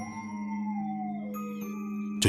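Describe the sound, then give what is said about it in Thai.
A dog howls from afar at night, a long sustained wavering cry that slowly bends in pitch over a couple of seconds, fairly faint, ending with a brief sharp noise. “จู่ๆก็มีเสียงหมาหอนดังมาแต่ไกล จนกระทั่งเสียงนั้นมันมาหยุดที่หน้าบ้านของผม”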